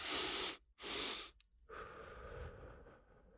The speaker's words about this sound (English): The physiological sigh breathing technique that Andrew Huberman talks about, two inhales and a long exhale